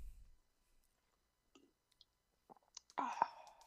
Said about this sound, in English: You uh, you were sipping. It just it just went well with it.